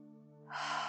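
A single brief, gentle breath taken as conscious, normal breathing: a soft hum-like onset that opens into an airy rush of air, heard on its own with no talking.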